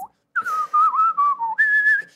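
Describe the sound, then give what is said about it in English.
A funky whistled tune, the menu music of the game Octodad: a short run of clear, bright notes that slide and bend in pitch, ending on a higher sustained note. Moderately loud, with no talking. “It's like this funky whistling tune.”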